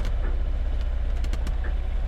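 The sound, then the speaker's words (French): A steady, low boat engine drone fills a sleeping cabin during a sea crossing under motor, constant, with a few faint creaks of the boat's wood over the rumble. No one speaks. “Et le son est tout de suite un peu moins romantique vu qu'on entend juste le moteur du bateau et peut-être un petit peu le bois qui craque.”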